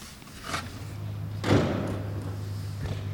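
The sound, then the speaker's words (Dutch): A chair is shifted back into place with a heavy thud and a short scrape, plus a couple of lighter knocks, over a steady low hum. “De stoel kan terug, want je kan erop. Ja, die gaat weer terug.”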